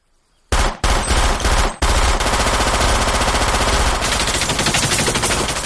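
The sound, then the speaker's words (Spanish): Loud, sustained submachine gun fire from two men outside aiming at a trailer: a short opening burst, a brief gap, then a long unbroken stream of rapid rattling shots with metallic impacts as bullets hit buckets inside, no voices. “Las balas impactan en los cubos. Fuera, dos hombres apuntan al remolque con metralletas.”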